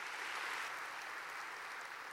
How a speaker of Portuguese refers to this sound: Quantos querem ser influência nesse mundo, digam amém e aplaudam o Senhor bem forte, bem forte.